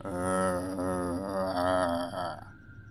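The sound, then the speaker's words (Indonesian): A voice imitates a long, heavy groan, a low drawn-out moan lasting over two seconds that trails off into a faint tonal fade, without other talk. “Sambil memegang HP dan menunggu balasan chat dari kekasih, tiba-tiba aku mendengar suara erangan berat seperti ini.”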